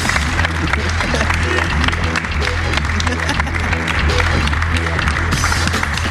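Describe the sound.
Loud, sustained applause from an audience for a guest at the end of a show, a dense wash of many hands clapping that holds steady for several seconds, with a low hum and murmuring voices underneath.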